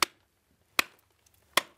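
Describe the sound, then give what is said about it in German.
Three sharp, bright strikes of a replica Bronze Age pick, a bronze head on a beech-wood haft, chipping salt crystals from a brown-orange rock salt layer in a chamber 350 metres into a salt mountain tunnel, evenly spaced about three-quarters of a second apart, each a crisp percussive crack with a short ringing tail; no voices. “schlägt ein paar Salzkristalle heraus mit einem nachgebauten Werkzeug aus der Bronzezeit.”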